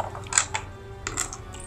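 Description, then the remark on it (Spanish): Dice clatter lightly on a hard surface: a few sharp clicks, two quick knocks early, then another a moment later, over faint background hum with no talking. “bueno, entonces tenemos, a ver, espera, es que me gusta a mí usar los dados estos.”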